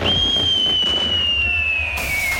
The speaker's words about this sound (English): Remember, remember the 5th of November with an award winning fireworks musical display.